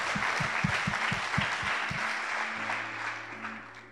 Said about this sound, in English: I know it's a miracle that happened 2,000 years ago, but it's good to give a hand clap even still.